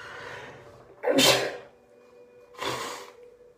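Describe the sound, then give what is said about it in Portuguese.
Someone blows their nose twice: two loud, noisy bursts of breath about a second and a half apart, with quiet breathing before and between them and no talking. “Eita, mas deixa eu só suar o nariz aqui de novo.”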